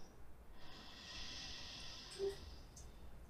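A long, slow breath drawn in through the nose, a soft airy hiss that swells and holds for a couple of seconds, quiet, with no talking.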